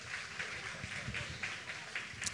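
Faint applause from a neighbouring stage, a steady wash of many hands clapping with soft rhythmic pulses, heard without any voices.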